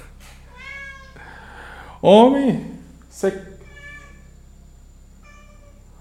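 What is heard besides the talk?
cat meowing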